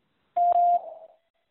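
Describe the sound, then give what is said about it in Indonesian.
A single steady electronic beep tone in a quiz, signalling the moment to answer a question, about half a second long, sounding clearly and alone before trailing off into a faint reverberant tail. “Silakan jawab setelah nada berbunyi.”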